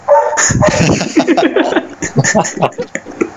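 Dogs bark loudly in a rapid, overlapping flurry of yaps and woofs, continuing in shorter bursts toward the end, with a voice talking faintly among them.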